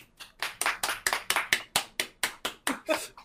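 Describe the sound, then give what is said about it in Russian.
A single person claps their hands in a steady, brisk rhythm, about a dozen sharp, close-sounding claps over a few seconds. “Но ну, если бы я мог вот. аплодировать, я бы поаплодировал, да.”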